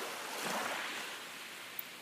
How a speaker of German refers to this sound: Du kannst sehen, wie das Wasser in immer wiederkehrenden kleinen Wellen an den Strand brandet. Es fließt so gleichmäßig wie dein Atem.